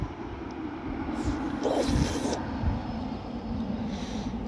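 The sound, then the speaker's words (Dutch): Muffled traffic outside on a busy Thursday late-shopping evening, with a steady low rumble and one car swishing past more loudly around the middle before fading back into the background hum. “Waarom kom je eens op de auto's?”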